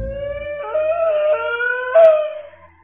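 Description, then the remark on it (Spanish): Dogs bark and howl in long, wavering overlapping tones that rise and dip, drawing closer and swelling louder near the end before fading away. No one speaks. “entre los ladridos cada vez más cercanos la escuchó.”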